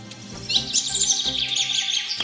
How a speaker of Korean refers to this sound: 우리 의원님에게도 새소리 좀 한번 들려줘 보세요.